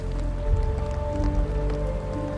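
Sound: rain falling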